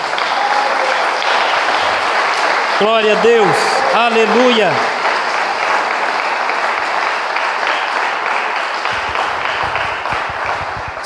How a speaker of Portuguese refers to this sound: Aplaude o nome do Senhor Jesus mais uma vez.